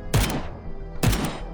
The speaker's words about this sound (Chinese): 子弹不断的打在墙上，溅出了许多的碎屑。